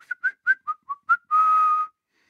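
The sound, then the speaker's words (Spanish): A person whistles like a bird: seven quick chirpy notes bouncing up and down, then one long steady whistled tone held for about half a second. Clear, with no talking. “Porque otra se sería como que suene como un pájaro, ¿no?”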